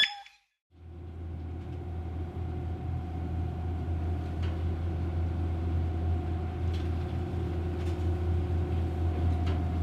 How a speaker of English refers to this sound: Having spent three days on the boat with engine noise and sounds of the, the waves, it's just wonderful to actually turn the engines off and, and uh, once we're at anchor and and then the, the, sounds of the island start to, to hit you.